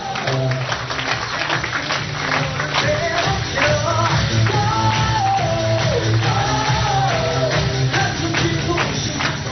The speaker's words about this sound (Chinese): 来，再给他热烈掌声鼓励一下。